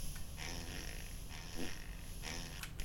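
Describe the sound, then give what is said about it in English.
A few low, raspy fart noises, played from a gadget that has 12 fart sounds, sputter out in short bursts, fairly quiet and without any talking, with a faint hissy background between them. “Is that a fart? Yeah, we get some really nasty. We like 12, 12 fart noises.”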